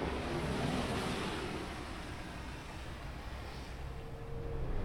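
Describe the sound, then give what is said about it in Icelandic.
A light, cold wind blows steadily at an outdoor bus stop, a continuous soft rushing with low rumbling gusts against the microphone, holding a fairly even level throughout with no one talking. “Það er kallt, það er smá vindur.”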